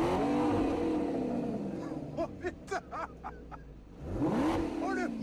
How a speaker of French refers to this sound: Après avoir quitté l'aéroport, le sauveur pontif met la pédale au plancher et affole le compteur de vitesse.